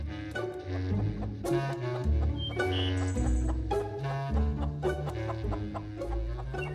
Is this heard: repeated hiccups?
no